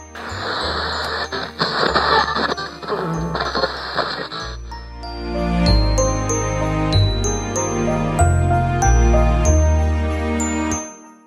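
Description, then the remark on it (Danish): Festive Christmas music plays steadily on a radio channel, opening with a dense, hissy full-band passage over bass notes, then settling into a melody with bright chiming bell tones and a stepping bass line. “siger faren og slår over på en anden kanal, som spiller julemusik.”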